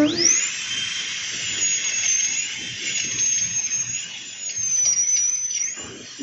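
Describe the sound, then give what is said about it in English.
A high-pitched dental drill whines steadily for several seconds, spinning up sharply at the start and dipping briefly near the end as it grinds against a tooth, loud. “That was a dentist drill working on tooth.”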